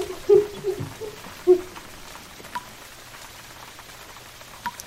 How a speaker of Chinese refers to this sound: 毛毛雨下了好几天，淅沥淅沥一直不停。